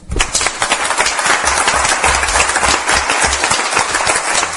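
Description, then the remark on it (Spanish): Sustained applause as the hosts applaud their audience, a dense, steady wash of many hands clapping at an even loudness for several seconds, with no talking over it. “De modo que dejadnos que nosotros os aplaudamos a vosotros.”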